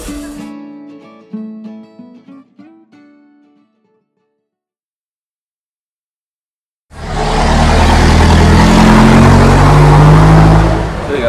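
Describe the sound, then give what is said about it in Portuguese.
A few plucked musical notes fade into silence, then loud, rushing street traffic of cars on the street swells in, a car roaring past with deep engine rumble and broad noise for the last few seconds. “Pô, depois eu vou cortar meu áudio inteiro, pegar o sample dessas paradas, escrever vários algoritmos pra cortar o barulho da, dos carros na rua e daí a gente vai testando eles.”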